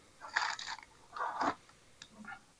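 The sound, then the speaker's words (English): Crunching and crinkling in a few irregular bursts as someone rummages while looking for a flint for a lighter, fairly quiet with short pauses between and no voices. “you crunching over there?”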